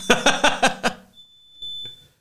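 A smoke detector gives a faint, thin high-pitched beep with a short chirp, heard just after a burst of rhythmic laughter.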